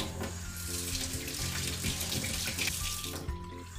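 Water runs steadily from a tap into a sink, a continuous splashing rush with faint clinks and shifting patter as a cup of lentils is rinsed under the stream, without speech.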